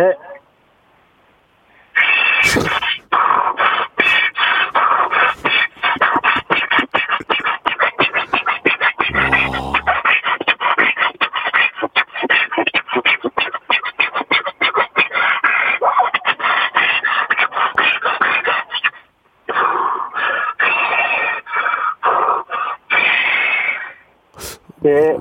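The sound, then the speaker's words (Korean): A voice imitates the engine of an old mill being started and running: a rapid, loud, rhythmic chugging that kicks in after a brief pause, runs steadily with sputtering pops, then falters and dies out near the end as if out of fuel. “자 옛날 방앗간 발동기 소리 출발합니다.”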